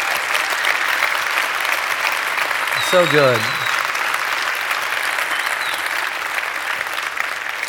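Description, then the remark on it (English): Steady, sustained applause from a large church audience at even loudness throughout, encouraging a man and a woman, with a brief spoken remark rising over the clapping near the middle. “Would you just encourage that man and that woman for the stand and for what God's doing in their life?”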